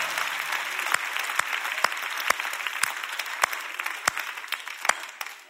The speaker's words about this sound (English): And the white people messed up the clap. We couldn't even keep it going five seconds.